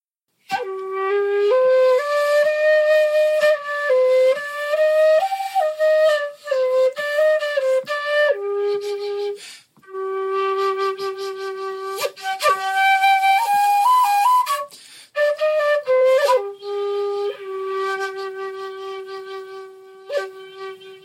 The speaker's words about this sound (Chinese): 今天，它被称为多节竹，也是日本十六世纪的产物。这是由创造箜篌音阶的绅士创造的，我称它为 “inson 长笛”。